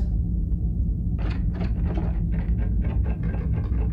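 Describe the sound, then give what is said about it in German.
A repeated scraping, dragging noise in a corridor, in a series of uneven strokes over a constant low rumble, with no voices. “Aber hörst du nicht so dieses, dieses Schleifen irgendwie?”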